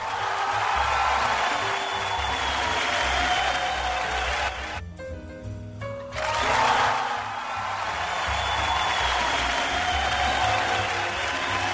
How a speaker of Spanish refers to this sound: Ya sonaron los aplausos para el señor Luna